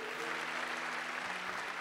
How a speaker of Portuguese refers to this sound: Igreja, abra tua Bíblia comigo, pode dar um aplauso bem forte ao nosso Deus que é poderoso.